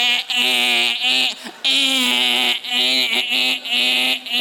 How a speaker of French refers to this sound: qu'est-ce que c'est ça? C'est pas Dominique Michel, c'est un système d'alarme.